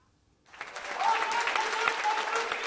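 An audience applauds a dismissed sociology lecturer of Kocaeli University in Turkey, breaking into applause after a brief silence, a dense, steady patter of many hands clapping that holds at an even loudness, with faint voices mixed in.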